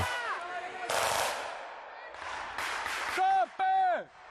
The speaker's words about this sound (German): Plötzlich Schüsse von irgendwoher aus dem Wald und niemand weiß so recht von wo.